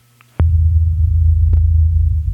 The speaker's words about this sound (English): So this is a sample from a site called, called Skeptoid that tried to give an example of the low frequency.